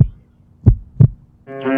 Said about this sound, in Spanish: Tu latido.